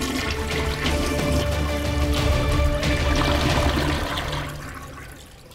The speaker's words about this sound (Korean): 그리고 마지막 부적까지 제로 만드는 순간에 재빨리 변기물을 쭉 하고 내야죠.